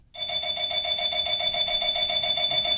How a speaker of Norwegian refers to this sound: så meningen er at den skal stikke fra når den begynner å ringe om morgenen